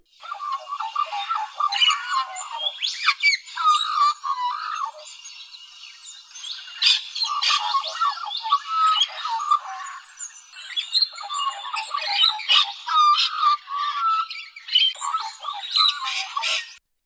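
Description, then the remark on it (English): An Australian magpie warbles continuously, a rich, fluting and gurgling song with overlapping phrases and harsher chatter, clear, with no talking. “Today's bird is an Australian favourite, the Australian magpie. These handsome black and white birds are known for their melodious warbling and murderous tendencies.”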